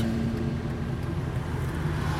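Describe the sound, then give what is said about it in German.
Steady road traffic rumbles, a continuous low engine drone with cars streaming past, heard through the open windows of a car on a warm day; fairly loud and unbroken, with no voices over it. “Tut mir leid für die Nebengeräusche, dass ihr die ganzen Autos jetzt hier so vorbei düsen hört aber es ist halt schon ziemlich warm und äh, deshalb habe ich die Fenster auf, sonst äh, ich habe ja keine Klimaanlage im Auto, sonst gehe ich kaputt.”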